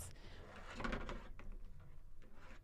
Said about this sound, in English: We're knocking things down.